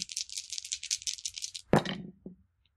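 Dice shaken rapidly for about a second and a half during a tabletop role-playing game, after a fate point is spent to change the roll. A bright, steady clicking rattle, then the dice are tossed down with a sharp clatter and one smaller knock as they settle. No voices.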